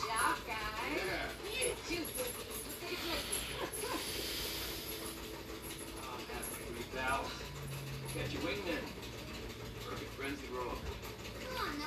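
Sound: dog whimpering and panting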